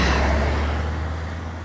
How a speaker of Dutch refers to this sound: Een auto die langskomt. Nou, dat is heel bijzonder.